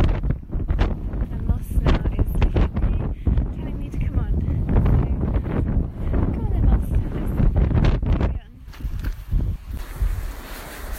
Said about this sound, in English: And it's very windy. Always windy in Cornwall.